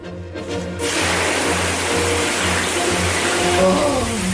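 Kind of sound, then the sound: household object, shower water running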